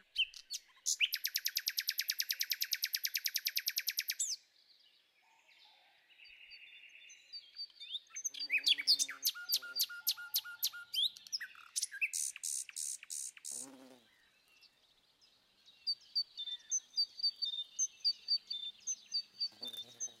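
Several birds chirp and trill in quick, layered bursts, including a long rapid buzzing trill, sharp descending whistles and repeated high tweets, clear with no talking.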